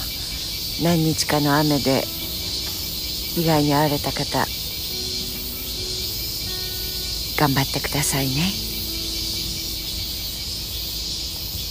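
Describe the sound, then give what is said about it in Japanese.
A dense chorus of cicadas buzzes steadily outdoors in Tokyo on a summer morning as rain clouds clear to blue sky, a continuous high-pitched drone that never lets up, while a man speaks in short phrases over it. “さてセミの声はもう一回夏休みに引き戻してくれています”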